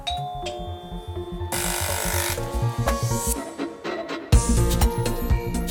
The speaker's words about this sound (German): So. Dann drückt sie auf die Klingel.